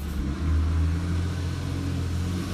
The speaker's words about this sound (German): Hier fährt gerade ein fettes Auto dran vorbei. Ähm, ja. Vielleicht nicht der, die beste Position, sich direkt an der Straße ja, sich hinzusetzen, aber das dazu.